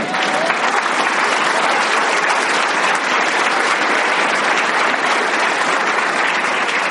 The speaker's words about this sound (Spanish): Un aplauso, un aplauso.